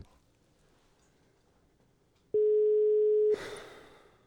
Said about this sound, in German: Und jetzt klingelt es bei Tim König am Telefon